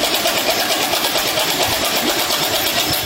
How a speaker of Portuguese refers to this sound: Se ouve também a matraca.